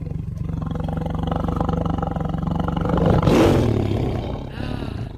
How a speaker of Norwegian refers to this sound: Eh, men sånn her høres faktisk en tiger ut.